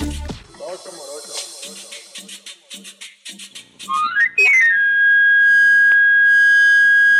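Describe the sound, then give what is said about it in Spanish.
After a few seconds of voices talking, a street knife sharpener's wooden pan flute whistle, sounded in the streets of Mexico City in the afternoon to announce the knife-sharpening service, runs quickly up a scale of shrill notes, then holds one loud, piercing high tone to the end. “Ese silbido inconfundible es producido por un camarillo, una flauta de madera de origen medieval que basta como anuncio sobre su servicio para afilar cuchillos”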